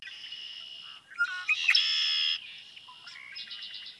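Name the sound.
red-winged blackbird song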